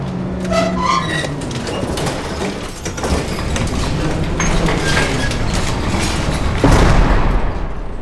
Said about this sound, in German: Okay, Kollegen, ich werde die Tür mit den Hebearmen des Laderoboters aufstoßen. Dann lass mich aber vorher runter. Das geht auch schon wieder. Trete zurück. Ich werde nun die Tür aufstoßen. Stoßen.